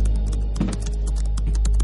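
Rapid, irregular clicking of fingers typing on a computer keyboard into a black window, fairly loud, over a steady low hum with no voices.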